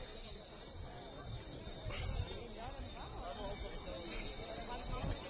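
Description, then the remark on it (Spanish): Horses' hooves clip-clop irregularly amid a busy outdoor din as a brotherhood with horses prepares to enter a village, with people talking in the background and a faint bell-like ring now and then. “Estamos delante, ya estamos entre los caballos”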